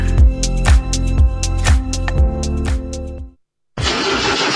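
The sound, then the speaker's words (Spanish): A diesel engine cranks over and over in a steady, labored rhythm, falls silent for a moment, then catches and roars into loud, rough running. No one speaks. “¿Y arranca o no arranca? siempre arranca con bujía Gescher para motores diésel.”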